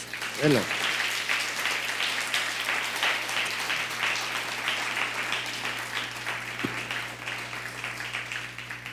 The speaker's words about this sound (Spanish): que se escuche bien fuerte. Es un aplauso a todas las naciones. Vamos.